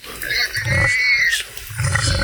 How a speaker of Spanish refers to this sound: Primero se calman, ve, ahí está. Ah, ya se calmaron, ya se calmaron. Ya se calman los chanchos. Ya se calman los chanchos.